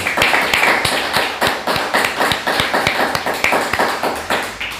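Audience applause: a steady burst of many hands clapping, loud and sustained for several seconds with sharp, rapid, overlapping claps and no voices.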